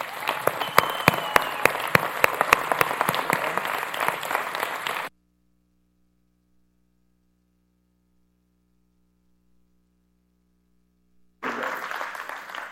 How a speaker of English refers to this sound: Give him a hand clap.